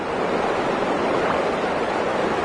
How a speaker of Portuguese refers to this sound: Pode baixar um pouquinho o volume da água.